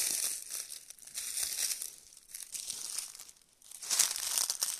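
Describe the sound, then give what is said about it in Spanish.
Continuous crisp crunching and crinkling of a carpet of dry, greyish-brown fallen leaves, steady for several seconds with a brief lull before resuming louder; no voices. “Si pones atención lograrás ver algunas hojas flotando desde lo más alto de camino al suelo suavemente para regalarnos esta alfombra café grisácea”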